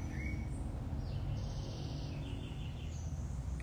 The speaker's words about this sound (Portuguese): Vocês vão ouvir os passarinhos cantar aqui que porta aqui do consultório está aberta. Então a gente vai fazer a live aqui ao som ao som dos passarinhos aqui que ficam cantando aqui no, no quintal.